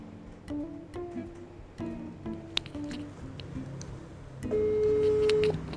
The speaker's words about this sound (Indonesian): Uh, kita telpon oke. Okay mudah-mudahan diangkat tadi udah janjian sih